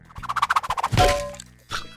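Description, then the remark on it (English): A rapid run of warbling, gobble-like pulses gives way to a loud, solid thwack of a thrown Black Lagoon hard seltzer can hitting a face that rings out briefly, then a second duller thump. “Why did you throw a beer can at my face?”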